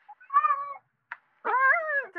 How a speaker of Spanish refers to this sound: Hay un gato. Hay un gato maullando.